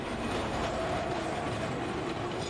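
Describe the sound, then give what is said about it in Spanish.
A steady, dense rumble of a passing train in Calcutta, India, with rattling wheels and a faint high squeal running underneath, no voices, just continuous busy urban rail noise. “Os voy a pedir, antes de seguir adelante, que escuchemos un fragmento más, unos sonidos que nos llevan a una de las grandes urbes de la India.”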